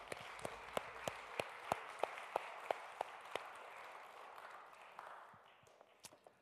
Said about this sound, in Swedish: Tack så mycket lovsångsteamet. Kan vi eh, uppmuntra dem genom att ge dem en applåd?